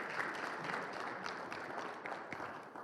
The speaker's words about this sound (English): And I'm really thankful for our pastors. Uh, I think they've been doing a really good job. Can we just give them a clap just to say how much we are thankful for them?